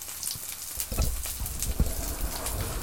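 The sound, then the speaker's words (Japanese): Chewing of fatty pork belly right in front of the microphone, with wet smacks and soft crunches in an uneven rhythm, steady and fairly loud with no talking. “食っています。咀嚼音嫌な人はしばらく聞かずにいてください。”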